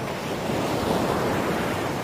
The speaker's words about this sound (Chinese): 大海潮起潮落